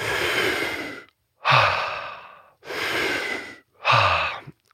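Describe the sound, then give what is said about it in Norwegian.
Four deep, forceful breaths in a breathwork technique, each expanding the inhale, alternating inhale and exhale in a steady rhythm with brief pauses between, each a loud rushing of air lasting about a second. “Så når man gjør denne teknikken, så, er det liksom, så, gjør man den ikke 1 men man gjør den 100 Altså hvert eneste pust er en ekspandering av innpustet.”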